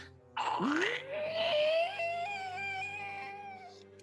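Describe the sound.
A voice imitates the squeaking third stair step of a house as the character Aradia steps on it: one long, drawn-out nasal squeal that rises in pitch and then holds steady for a few seconds, fairly loud.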